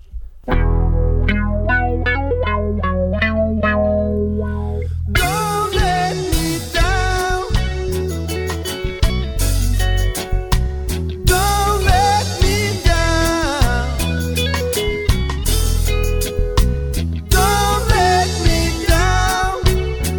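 A reggae cover of a rock song plays loud and up close: a few seconds of sustained, swelling chords, then the full band kicks into a steady, choppy groove with effect-laden guitar.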